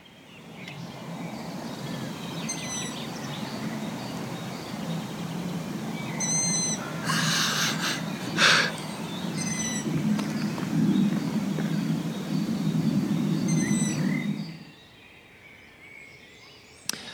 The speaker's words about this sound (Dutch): Hoor je dat gepiep? Wel, dat zijn takkelingen van een ransuil. En als je niet weet wat takkelingen zijn, wel takkelingen, dat zijn uilskuikens die wachten op hun ouders tot ze eten komen brengen.